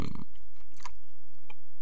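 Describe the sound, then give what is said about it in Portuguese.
Gum chewing: a few moist smacks and clicks of the mouth at irregular intervals, with a louder smack at the start and no talking. “e agora estou a mastigar aqui uma pastilha.”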